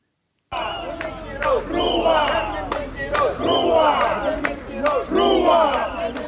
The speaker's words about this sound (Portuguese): Às portas do início do ano letivo, no dia 31 de janeiro, os professores na capital moçambicana cantaram, dançaram e vaiaram o governo para exigir os seus direitos.